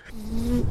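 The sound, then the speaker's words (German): An alpaca hums once: a soft, steady nasal tone lasting about half a second, slightly buzzy, much like a mosquito whine, with faint background noise around it. “als ich das das erste Mal gehört habe, dachte ich irgendwie, da schwirrt eine Mücke rum.”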